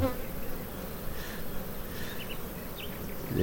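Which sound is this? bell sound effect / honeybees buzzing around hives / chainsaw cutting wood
honeybees buzzing around hives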